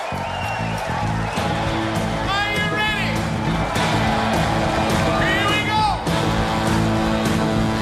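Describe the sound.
A loud live concert recording from a 2009 concert: a full band plays a dense, continuous arrangement with steady drum hits while a singer's voice swoops upward in sliding phrases, filling the whole stretch.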